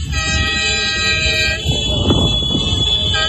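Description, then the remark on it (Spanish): Loud, sustained horns blare together from a convoy of hauliers' trucks heading to Paris, France, to blockade the capital, in overlapping tones, honking continuously over rumbling engine noise, with the horn chorus shifting pitch partway through. “Y es que siguen camino de París en varios puntos caravanas de camiones como esta, transportistas que habían, se habían marcado las dos de la tarde como hora para el inicio del bloqueo de la capital francesa.”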